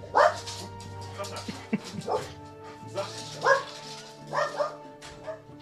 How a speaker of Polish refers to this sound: gdzieś słychać jakiegoś psa.